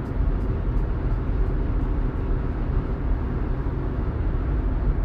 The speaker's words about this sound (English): But traffic is ultimately moving pretty steady for this time of day on the 400.